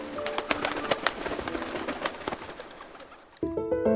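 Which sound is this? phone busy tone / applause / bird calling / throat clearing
bird calling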